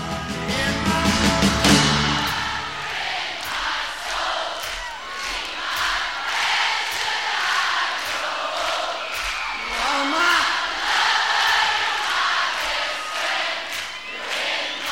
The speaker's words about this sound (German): Da gibt es eine Live-Aufnahme, äh, live, …, ein Live-Album, wo das Publikum beinahe mehr singt als er. Also eine Stimmung, eine Atmosphäre, die man auf kaum einem Live-Album besser hören kann als auf diesem.